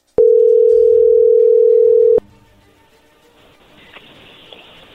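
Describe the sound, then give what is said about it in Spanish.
A steady, loud single-pitched telephone tone as a dialed phone call connects holds for about two seconds, starts and stops with sharp clicks, then gives way to faint line hiss and quiet background noise. “Órale, No haga ruido Entro entró la llamada.”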